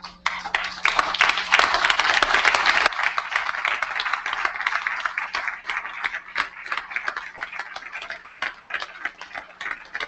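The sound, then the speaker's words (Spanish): An audience, asked to stand, applauds continuously for a minute, a dense wash of clapping that is loudest for the first few seconds, then eases slightly into a steady patter of claps with no voices. “Para finalizar, les pido que nos pongamos de pie y le dediquemos un minuto de aplausos.”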